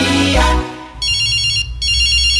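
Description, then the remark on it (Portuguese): A telephone rings with a high, buzzing electronic trill in two short bursts separated by a brief pause, following a loud thump at the start; the call is from a cousin. No one speaks. “Ô, primo, se você tá ligando pra frescar, eu vou desligar, viu?”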